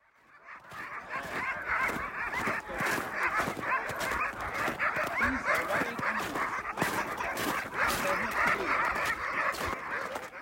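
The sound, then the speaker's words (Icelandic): A large pack of Greenlandic sled dogs barks, yips and howls all at once in a dense, continuous, loud chorus with overlapping high-pitched cries and no pauses, in a valley called the dog village near Sisimiut, Greenland. “Nálagt Sisimjút er dalur sem er kallaðir hundathorpið og er fullur af grænlenskum sleðahundum.”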